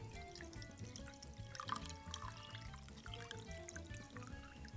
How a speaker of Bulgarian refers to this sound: Със сигурност ще стане още по-вкусно, а към него добавям и водата, в която манатарките престояваха.